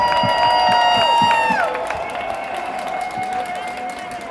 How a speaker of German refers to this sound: So, wir haben natürlich ein Programmwerk auf die Beine gestellt und einen ganz großen der Verkehrswissenschaften hierher geholt. Hermann Knoflacher ist bei uns. Also bitte einen Riesenapplaus! Applaus